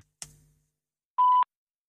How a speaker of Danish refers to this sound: Velkommen til voicemail. Indtal din besked efter tonen.